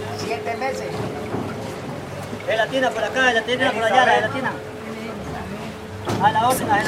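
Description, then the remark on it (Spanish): Busy river dock ambience at the pier of Barranca Bermeja on the Magdalena River: a steady motorboat engine drones and rumbles beneath overlapping voices of people talking and calling, with bursts of chatter rising over the continuous hum, as a crowded boat prepares to cross the river. “Estamos en el muelle de Barranca Bermeja. Listos a atravesar el río Magdalena para llegar a Cantagallo Bolívar”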